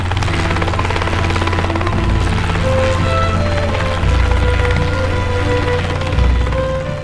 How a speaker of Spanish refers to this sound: 20 de diciembre de la Rúa Dimite y tiene que huir en helicóptero desde la Casa Rosada por miedo a ser linchado por su pueblo.